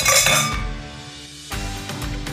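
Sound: glasses clinking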